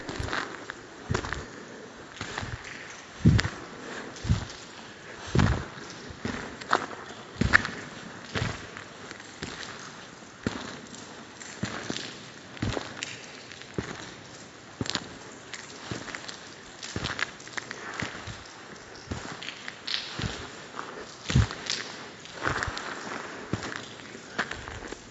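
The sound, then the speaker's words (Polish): Steady footsteps walk at an even pace through a dark corridor of a building complex, each step a distinct scuff over a faint hiss of background noise, with no voices. “Teraz mam 92 kroki.”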